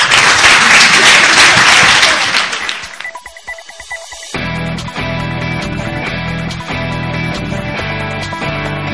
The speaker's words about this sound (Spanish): Ha sido un placer tenerte aquí. Te deseamos un gran aplauso.